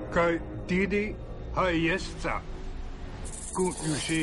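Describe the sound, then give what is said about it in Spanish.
A rattlesnake shakes its tail, its dry, steady buzzing rattle hissing throughout and turning sharper near the end, while a voice speaks over it in short phrases. “Una serpiente de cascabel mueve la cola.”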